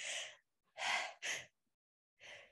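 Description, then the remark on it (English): A quick run of four breathy sneezes with short pauses between them, the last one coming after a longer gap. No one speaks. “Bless you.”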